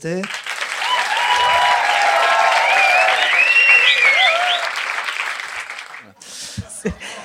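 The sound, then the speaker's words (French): A crowd applauds for a show recording, with a steady, dense wash of clapping for about six seconds, shrill whistles and cheers rising over it, before it dies away and a couple of voices speak briefly. “C'est bon, tu tournes alors on fait quoi Les applaudissements bah, d'abord Les applaudissements pour avoir”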